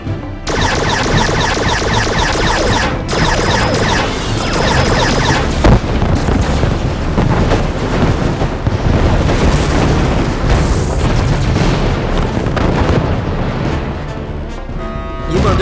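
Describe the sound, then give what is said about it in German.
Continuous sci-fi laser cannon fire with heavy booming explosions, loud and dense throughout, bright zapping bursts layered over deep rumbling blasts with no pauses. “Alle entbehrliche Energie in die Laser!”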